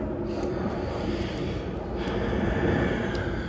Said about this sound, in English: It was an airplane flying above because I'm right off of an Air Force base. And they don't know how to shut the fuck up over there.